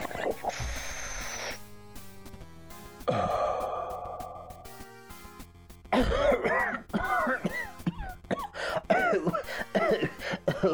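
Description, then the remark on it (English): A breathy inhale and long exhale give way to a harsh coughing fit, with rapid, ragged bursts repeating in quick succession and growing louder toward the end. “you gotta, you gotta cough to get off this planet.”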